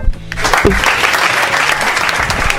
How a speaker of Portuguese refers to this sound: Senhoras e senhores, uma salva de palmas para nossa convidada de hoje,